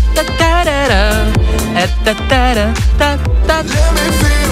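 An upbeat electronic dance track plays loudly and continuously on Fine Radio, with a steady pounding beat, sustained synth chords and a bright gliding melody on top, no voices.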